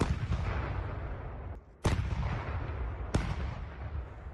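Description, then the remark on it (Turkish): Heavy, continuous rumble of artillery and gunfire in the war that began with Russia's attempted invasion of Ukraine, broken by two sharp, loud cracks of shots, with no voices. “Savaşın şiddeti azalsa da çatışmalar sürüyor, silah sesleri yükseliyor.”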